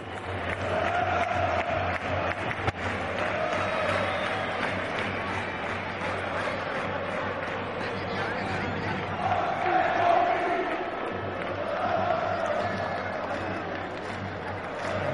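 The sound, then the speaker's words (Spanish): A huge stadium crowd of football fans chants a song about José Mourinho in unison, a dense, steady roar of voices rising and falling in melodic swells for the whole stretch, with scattered shouts mixed in. “una canción que se ha cantado mucho en el Bernabéu, en el estadio del Inter, en el estadio del Chelsea y últimamente en el estadio del United.”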